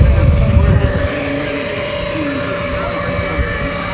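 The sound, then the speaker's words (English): A propeller airplane's engine drones steadily as it taxis onto the runway, a continuous hum with a heavier low rumble in the first second, then an even, sustained tone. “I don't know that it's him go onto the runway there too.”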